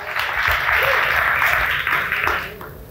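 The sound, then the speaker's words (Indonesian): A crowd applauds the women steadily for about three seconds, a dense wash of many hands clapping at once with no pauses, tapering slightly at the end. “Tepuk tangan dulu buat para wanita ya.”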